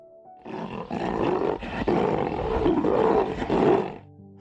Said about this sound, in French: Soudain, le lion eut une idée il se mit à rugir à l'appel de tous les animaux.